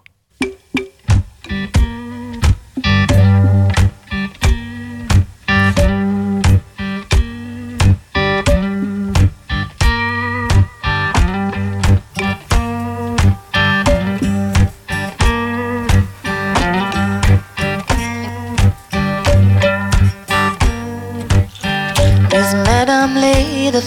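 A loud rock song by an Amsterdam trio plays with a driving, steady drumbeat, a heavy repeating bass line and layered guitars, all instrumental with no singing in this stretch.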